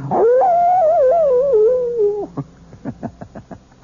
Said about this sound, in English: And the wolf is not only a fascinating creature, he also does something wonderful for all lovers of mystery stories. He makes this chilling sound.